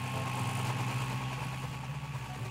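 A chopper motorcycle engine idles with a steady, low, throbbing rumble that holds an even loudness throughout, with no voices over it.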